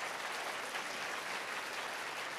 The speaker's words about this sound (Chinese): 我妈也写了几本书，嗯哼，给他拍拍手吧。